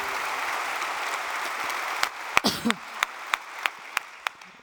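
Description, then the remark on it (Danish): Audience applause at the mention of Drengeakademiet and Lykkefonden: a dense, steady wash of clapping, then sharp, evenly spaced claps ring out in a regular rhythm above it. A brief voice-like sweep cuts in partway through. “Det får klapsalver tidligt.”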